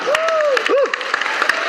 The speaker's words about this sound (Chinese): 那我要特别感谢我们台湾观光的最佳代言人，就是辣台妹，我们蔡总统，我们以掌声欢迎他。